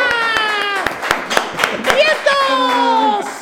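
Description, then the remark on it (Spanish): Scattered claps in a steady rhythm, roughly five of them, mixed with loud whooping, squealing voices that rise and fall in pitch, like a small excited audience cheering to welcome a clown guest on a show. “Un aplauso desde sus casas, por favor.”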